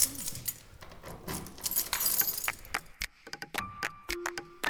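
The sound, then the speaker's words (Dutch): A large bunch of keys to a studio workspace in an old school building jangles and clinks, busy metallic rattling in bursts with a few sharp clicks and a brief ringing tone near the end. “Even kijken hoor, de sleutel. Oh jongens, dat is zo'n groot sleutelbos.”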